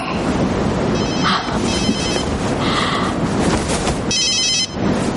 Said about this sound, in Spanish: Suena el móvil de Nick.